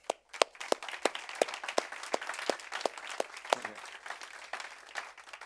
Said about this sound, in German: Und wir möchten dich ganz besonders heute mit einem kräftigen Applaus willkommen heißen.